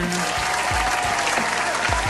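An audience claps steadily, a dense, continuous wash of many hands applauding at an even loudness, with a few low thumps mixed in.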